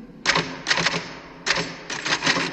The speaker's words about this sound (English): Whenever I'm in here, you hear me typing.